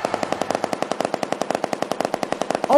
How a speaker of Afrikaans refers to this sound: Geweerskote onmiddellik skadelik vir jou gehoor